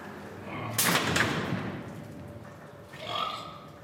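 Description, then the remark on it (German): A single loud, sharp bang from electronic stunning tongs as a butcher stuns a brown pig held in a restraint in a slaughter room, trailing into a brief harsh hiss, with a softer rasping noise a couple of seconds later. “Der Knall der elektronischen Betäubungszange.”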